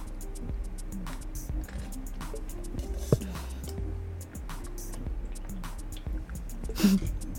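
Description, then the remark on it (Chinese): Water pours from a teapot spout with an uneven, bubbly glugging, a run of irregular gurgling pulses and splashes of moderate loudness with no one talking. “看过那种茶壶倒水的时候啊，它出来的水是非常的顺。像刚刚有扑通扑通的，就是其实它制作的那个角度，我觉得不是我觉得啊，就是我看的那个专家的分析，就是它呃没有达到优秀的标准。”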